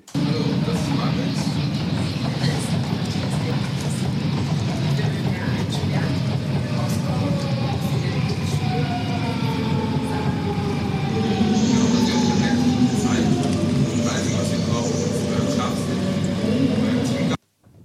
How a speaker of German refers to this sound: klang so wie Zugbremsen, ne? so, so quietschender